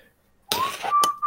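Someone whistles a short note that glides upward and then holds steady, with bursts of rustling noise around it and no talking.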